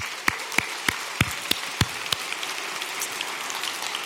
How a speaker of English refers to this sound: I want to give one more special thanks to our fathers this morning. So let's give all the fathers a round of applause.